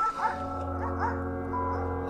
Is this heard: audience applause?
no